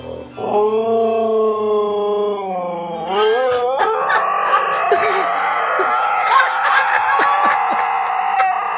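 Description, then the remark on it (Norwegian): Two huskies howl loudly in long, wavering, drawn-out tones that slide upward and then break into a dense, overlapping chorus of yowls, singing along to a piano song played through Alexa underneath. No one speaks. “skal vi høre nøyaktig duetten fra disse to huskyene når den starter.”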